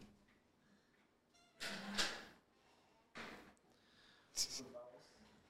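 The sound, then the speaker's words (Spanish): A chair is swapped and dragged around, making three rough scraping, clattering bursts over a few seconds, with faint voices murmuring in the background. “Para los que solo están escuchando, estamos cambiando la silla de mes.”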